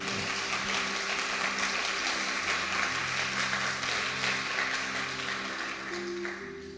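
A large crowd claps steadily for several seconds after a speaker asks for a round of applause, a dense, continuous wash of applause over sustained low musical tones, easing off slightly near the end.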